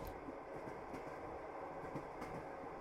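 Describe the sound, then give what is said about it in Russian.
Train wheels clack over rail joints at an uneven pace, now faster, now slower, sharp knocks rising out of a steady low rumble of a moving carriage of a locomotive-hauled train, heard from inside the train with no voices. “Колеса стучат то быстрее, то медленнее. Иногда поскрипывают вагоны и гудит двигатель локомотива.”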